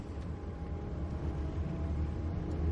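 A steady, low rumble of a car's engine and road noise from inside the car as a father and his child ride in it, continuous and even throughout, with no one speaking.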